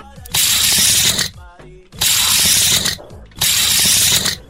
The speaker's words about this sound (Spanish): Es una cinta de medir.